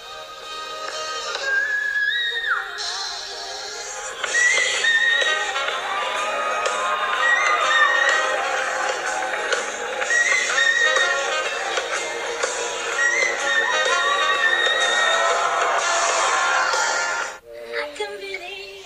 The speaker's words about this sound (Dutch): De, ook de meesteres van het zingen van fluittonen.